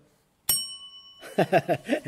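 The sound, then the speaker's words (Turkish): A single bright bell strike rings out clearly and lingers for under a second before fading, then a person starts talking right after it. “Bu arada zilimiz de var abi. Aynen zilimiz de var.”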